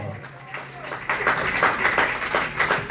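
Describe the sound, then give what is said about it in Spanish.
An audience breaks into loud applause for God in the afternoon, a dense wash of many hands clapping that swells loudly after a brief quieter start and keeps going steadily to the end. “Yo que a ustedes les doy fuerte aplauso a Dios en esta tarde”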